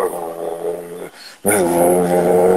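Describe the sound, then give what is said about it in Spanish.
A person mimics a dog growling, loud: a sustained rumbling growl, a brief pause, then a second, stronger growl that carries on to the end, imitating a dog that holds a sock in its snout wanting to play. “O sea, ya me los roba, no sé cómo le hace para robarlos, entonces quiere jugar con el calcetín, entonces me pone con el hocico acá y empieza”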